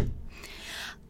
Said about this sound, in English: I'm gonna close my door.